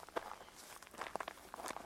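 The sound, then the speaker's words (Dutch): Slow, unhurried footsteps crunch softly on a road that drops steeply into a valley past a cemetery, a handful of quiet, slightly uneven steps with no voices, on a warm late afternoon. “Voorbij de begraafplaats duikt de weg steil het dal in. Goed door je knieën veren, langzaam lopen.”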